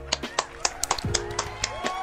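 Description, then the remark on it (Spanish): Steady hand clapping celebrating receiving 25 Cheers on a stream, about eight sharp claps at an even, quick rhythm, moderately loud, with a voice and some tonal sound running faintly underneath. “Aplaudamos.”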